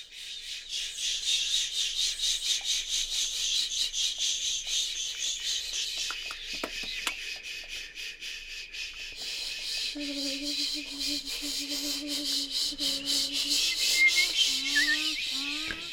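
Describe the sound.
A vocal ensemble imitates an early-morning profusion of wildlife in the calanques: dense, high hissing and chirring like cicadas and insects, with squawking bird-like calls and sliding, repeated whistled tones joining in the second half.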